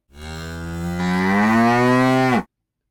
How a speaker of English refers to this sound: Ah, that was Lucy. I wondered when she'd be popping up. Lucy, the legislation cow. What does Lucy have to say for herself?